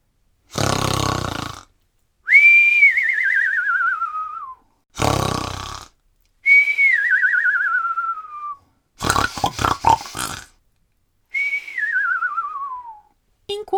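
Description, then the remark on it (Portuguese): Loud, exaggerated snoring of a giant who has fallen asleep, said to make the whole house shake, repeats three times: each cycle is a rough, rasping snort followed by a high whistle that slides downward in pitch, with short pauses between. No one speaks. “Então, o gigante começou a roncar, fazendo a casa inteira tremer.”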